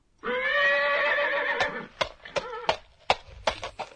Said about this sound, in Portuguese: Eu acho que é um cavalo trotando.